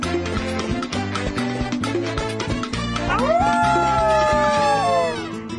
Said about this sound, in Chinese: 听起来像是草原狼的声音。 草原狼，yes，是草原狼，我闻到它了。